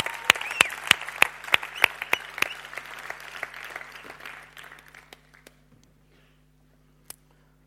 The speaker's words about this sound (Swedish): Ska vi ge dem här en stor applåd?